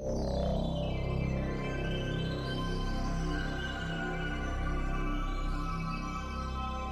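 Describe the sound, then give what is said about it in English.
A loud sci-fi sound effect of the cosmic key invented by Gwildor, a device with tuning forks on spinning arms, hums with layered metallic, tuning-fork-like ringing tones. Shimmering pitches sweep up and down over a steady drone for about seven seconds, with no voices. “And the cosmic key sounds like this.”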